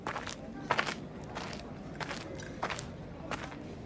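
Footsteps walk closer at a steady, unhurried pace, about six soft scuffing steps. No one speaks, and there is only a faint hush between the steps.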